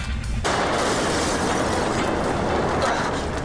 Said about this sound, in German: Habt ihr das gehört? Ich werde irre. Da vorne ist was explodiert. Ah. Eine Rauchsäule stieg vor ihnen auf und dunkler Qualm vernebelte die Sicht.